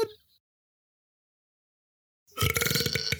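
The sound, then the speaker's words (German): A loud, drawn-out burp erupts after a long silence, rumbling and raspy for nearly a second, preceded by a brief faint noise at the start. “Ja, Rülps auch.”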